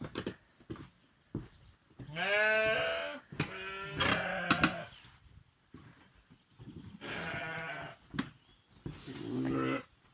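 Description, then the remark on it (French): Several ewes bleat in turn inside a lambing pen holding a second lambing batch of 18 ewes and young lambs, loud wavering calls, with shorter bleats and faint rustling between them and no talking. “Alors ça c'est mon deuxième lot de d'agnelage, il y a 18 brebis.”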